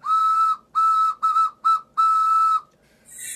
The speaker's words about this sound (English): very choo choo sound. Yeah, very choo choo.